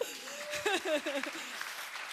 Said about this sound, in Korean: 박수 쳐주세요.